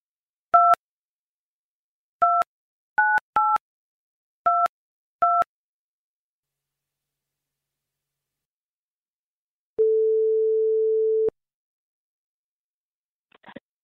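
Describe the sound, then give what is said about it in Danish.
A telephone call's ringing tone: a steady single ring of about a second and a half, after a series of short two-tone keypad dialing beeps. A faint click follows near the end. “skruer lige op på telefonen.”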